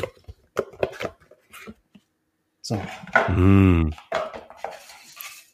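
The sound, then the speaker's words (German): A quick series of sharp clicks and soft taps as a boxed Commodore 64 computer game package from 1990, holding a 5.25-inch disk, is opened and handled, followed by a long, drawn-out vocal hum from a person. “Platz eins, äh, beziehungsweise Top drei bei mir, hört sich so an, wenn man es aufmacht.”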